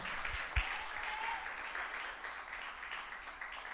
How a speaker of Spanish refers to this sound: Un aplauso a Cristo. Aleluya.